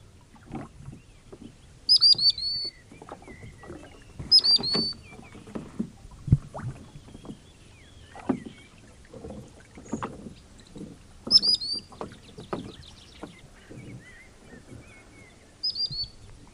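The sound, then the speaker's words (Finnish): A common sandpiper gives four brief bursts of high, thin piping calls, spaced apart, over the steady knocks and splashes of oars working a rowing boat on a lake. “no kuuntele, niin katsotaan mitä se herättää kysymyksiä, mutta soutaessa rantasipi.”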